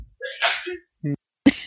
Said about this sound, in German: Gesundheit.